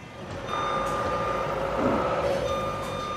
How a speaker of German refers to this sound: Im Minutentakt rollen jetzt die Lkw von den Rampen. Jeder Handgriff sitzt, jeder Ablauf ist genauestens getaktet.